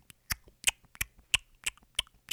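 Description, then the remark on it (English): A voice imitates footsteps sticking to a soda-covered floor with a series of wet, smacking clicks, about eight of them in a quick, uneven rhythm, fairly quiet. “and then I would hear my feet going”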